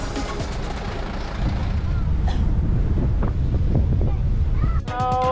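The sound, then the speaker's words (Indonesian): Gusty wind buffets the microphone over a low, rumbling ambience at the regular ferry dock of Merak Port, with engine and water noise as four-wheeled vehicles line up one by one to board a ferry, a few brief clanks in the middle, and a short tonal horn-like sound near the end. “Bus kembali berjalan menuju dermaga reguler Pelabuhan Merak. Kendaraan roda empat berbaris satu persatu untuk masuk ke dalam kapal feri.”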